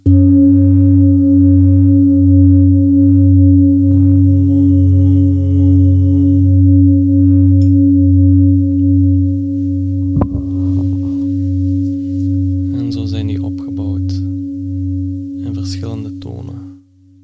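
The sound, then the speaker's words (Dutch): A large singing bowl, used for grounding, is struck and rings with a deep, steady, layered hum that sustains for many seconds; it is struck again midway, and a voice talks over the lingering tone toward the end. “Als ik hem nu nog eens aanslaag, heeft hij misschien wat andere vibraties.”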